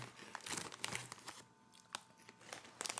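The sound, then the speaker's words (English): A hand rustles around inside a crinkly bag of Smartfood popcorn with Crunch Berries, trying to grab both popcorn and crunch berries, producing irregular bursts of crackling and crinkling plastic with brief pauses between grabs, and no talking. “I'm gonna try to get corn and crunch berry.”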